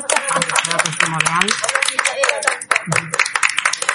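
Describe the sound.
A crowd breaks into loud, steady applause, many hands clapping in a dense rapid patter for the full stretch while voices call out and talk over it.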